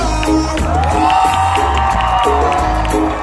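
A crowd claps and cheers loudly and continuously, with whoops and shouts rising over dense applause and a steady low rumble underneath.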